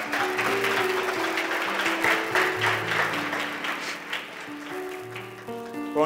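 A crowd applauds steadily for about six seconds for a person and their daughters, a dense wash of clapping that stays fairly loud throughout, with sustained musical notes playing underneath.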